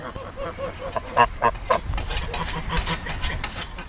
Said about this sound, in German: Die Karpaten sind eine einsame Gegend. Landwirte trotzen den steilen Hängen mit der Sense Gras ab, Gänse melden meine Ankunft.